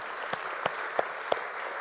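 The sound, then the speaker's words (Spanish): A church audience applauds to the Lord at the end of a sermon, a steady wash of many hands clapping at a moderate level, with a few sharper individual claps standing out at regular intervals. “Si usted ha recibido la enseñanza, dale un aplauso al Señor.”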